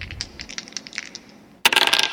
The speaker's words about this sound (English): rifling through the dice bag.